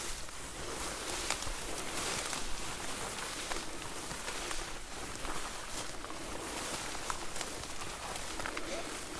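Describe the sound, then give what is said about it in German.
Steady rustling and swishing of footsteps of people walking through a grain field, a continuous crunch and brush of stalks without pause for several seconds. “das hört sich ja schon an, als würde hier eine ganze Rotte durchs Getreide laufen, so wie du stammst.”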